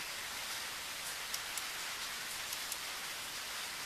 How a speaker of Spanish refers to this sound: Escuchen la lluvia, escuchan.